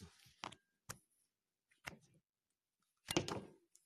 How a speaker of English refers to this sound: Now tack this in right there into the into the extension cord, which I found right underneath.